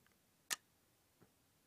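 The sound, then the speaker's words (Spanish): A camera's quiet silent-mode shutter click while shooting in live-view mode, sharp and close-up with the camera held to the microphone, followed less than a second later by a fainter second click as the mirror returns to its position on releasing the shutter button, with near silence around them. “pero bueno, quería que lo escucharan el modo silencioso cuando tiramos en el modo de vista en vivo.”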